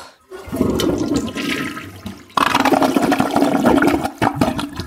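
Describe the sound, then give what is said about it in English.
A toilet flushes loudly in a bathroom, a rushing, gurgling surge of water that swells, briefly dips, then roars again before draining away. No one speaks. “We'll have a flushing good time.”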